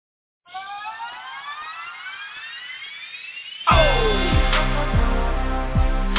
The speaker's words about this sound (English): sounding like an anthem, man. Them horns got me feeling real heroic right now, baby. Yes. This my 300 music.